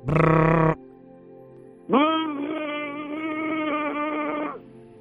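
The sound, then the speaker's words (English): A person imitates an airplane with their voice, giving a short loud buzzing burst, then after a pause a long steady droning hum that swells in and holds for a few seconds, alone. “Put your arms out as if you were an airplane. They're out. Make the airplane noise.”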